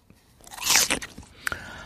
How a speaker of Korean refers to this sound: 아, 이거 사과 깨무는 소리군요.